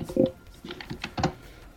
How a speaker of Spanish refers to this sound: Sonidos de teclado, muy radiofónicos.